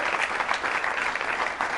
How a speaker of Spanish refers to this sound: Denle un aplauso al Señor. Amén. ¡Wow!